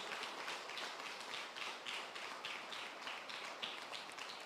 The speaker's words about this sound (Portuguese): Eu queria que você aplaudisse o Senhor. Dê um aplauso ao nosso Deus.